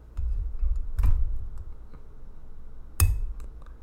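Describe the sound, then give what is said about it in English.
Serving a glass of Mac Adams beer: two sharp glassy clinks about two seconds apart, with soft tapping and a low steady rumble in the background. No one speaks. “Um, by the way, have I piqued your appetite for another glass of uh, Mac Adams beer?”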